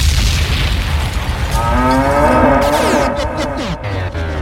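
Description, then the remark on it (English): A loud, drawn-out cow moo sound effect with rising and falling harmonic tones, layered over a dense, rumbling low background, continuous for several seconds with no talking. “There's a whole ass farm on this show.”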